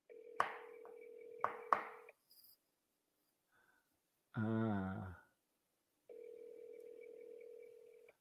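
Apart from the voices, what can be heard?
telephone call tones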